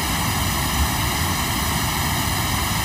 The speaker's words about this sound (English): and if I change the delay time, you'll hear all the comb filtering shift. That's great. Great example.